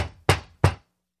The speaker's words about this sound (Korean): 주위를 둘러보곤 현관문 손잡이를 잡아당겼다. 문이 열리지 않자 주먹으로 유리를 두드렸다. 쿵쿵쿵. 쿵쿵쿵.